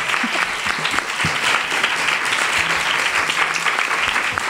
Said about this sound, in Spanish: Bueno, para el aplauso. Este público es buenísimo, porque yo hablé mejor hoy.